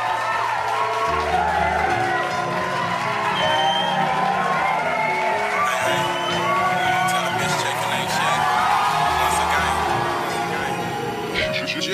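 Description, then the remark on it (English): A crowd cheers and claps steadily as a show's musical guests, a duo from California, are introduced to perform, with whoops and shouts rising out of a continuous wash of applause, while a thumping bass-heavy music track plays underneath throughout. “Please help me in giving them a round of applause.”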